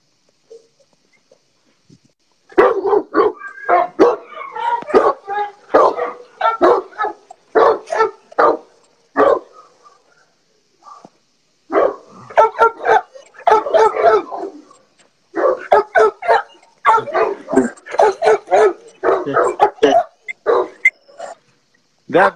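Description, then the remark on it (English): Several dogs in rows of kennels bark loudly in a dense, overlapping chorus of sharp barks and yips, briefly pausing midway before the clamor resumes just as intensely. “So that's uh, one of my one of my uh, rows of kennels.”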